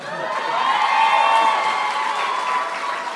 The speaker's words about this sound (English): So. a lot of, lot of easy applause from this Seattle crowd. It's fine. I respect easy applause.